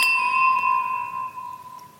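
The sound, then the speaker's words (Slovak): A single bright clink of wine glasses of Sauvignon Blanc from the 2022 vintage touching in a toast during a wine tasting, followed by a clear, high ringing tone that hangs and slowly fades over about two seconds, with no voices. “Môžeme si ochutnať na zdravie?”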